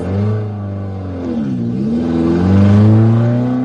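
A car engine revs up and down, its pitch rising and falling in smooth sweeps before climbing again, loud with a steady low rumble underneath.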